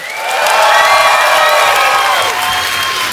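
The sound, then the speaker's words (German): Loud audience applause at a live show in Cologne, with cheering and whoops, a dense sustained roar of clapping and voices that swells quickly and holds steady for about three seconds. “Und ein Applaus genauso laut”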